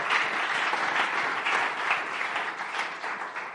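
A steady burst of applause for a church in Mexico, many hands clapping in a dense, even wash of sound that holds at a fairly loud level throughout, with no one speaking over it.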